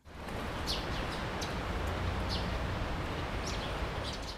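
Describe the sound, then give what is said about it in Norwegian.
Scattered high bird chirps come and go against a steady wash of outdoor noise, faint, with short calls spaced irregularly and no voices. “Ingenting signaliserer eksamenstida mer enn sol, fuglekvitter og stappfulle lesesaler.”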